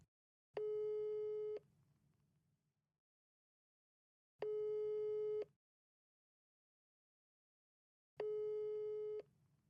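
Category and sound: signal or alarm, telephone ringing tone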